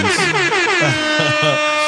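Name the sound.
air horn sound effect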